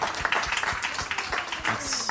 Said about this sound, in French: Hein, on peut l'applaudir, hein, c'était pas facile.